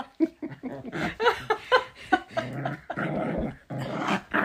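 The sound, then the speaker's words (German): A dog growls over its favourite towel in rough, rumbling bursts with a few higher yips mixed in, fairly loud, continuing steadily with short pauses throughout. “Das ist, das ist einfach Happy, die hier rumknurrt, weil das ist ihr Lieblingshandtuch.”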